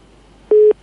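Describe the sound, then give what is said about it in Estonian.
After a caller's phone line drops, a telephone busy tone sounds once: a single short, steady mid-pitched beep, loud and clear over faint line hiss, with no voices. “Nonii, helistaja kadus, aga ma usun, et huvi küsida on usutavasti meie kuulajate seas ikkagi piisavalt suur,”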